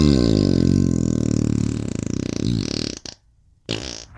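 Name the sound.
fart sound effect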